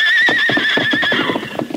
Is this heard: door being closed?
no